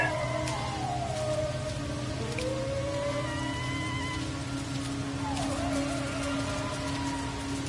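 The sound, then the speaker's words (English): Steady alkaline rain hisses throughout in a video game's desert, with odd whistling, sliding creature-like calls rising and falling over it. No one speaks. “the little box at the bottom once we uh, first spawned into the crash said alkaline rain.”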